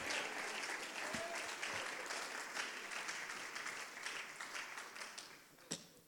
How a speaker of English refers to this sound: Come on, let's stand our feet, clap our hands, and thank God we have, we have what they're looking for.